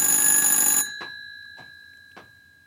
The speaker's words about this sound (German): Und natürlich klingelt an das Telefon. Geh mal gucken.